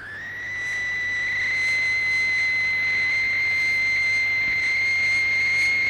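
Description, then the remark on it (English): A steady, piercing high-pitched whine like a dentist's drill swells in over the first second, then holds loud and unbroken for several seconds with no one speaking. “sounds like a dentist.”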